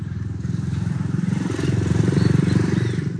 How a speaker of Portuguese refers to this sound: Depois de alguns minutos, o cabo Josias chega de moto. Cabo Josias chegando aqui, ó.